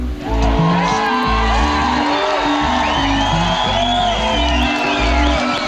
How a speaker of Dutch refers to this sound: Toch voelde hij direct na zijn eerste optreden op Lowlands in 2011 wat de impact kan zijn van een tent vol juichende mensen.